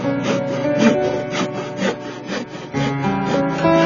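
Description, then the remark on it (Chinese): Traditional hand woodworking: a hand saw cutting through wood in a steady run of raspy back-and-forth strokes, about three per second, over a sustained low tonal hum, with no voices. “如今，隆隆的机器声似乎淹没了一切，像这样手工的声音很少听到了。”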